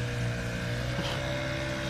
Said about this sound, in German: Ja, hier startet gerade ein kleines Boot. Also ich denke, wollen die kommen die nur gerade an und wollen hier nur festmachen, glaube ich.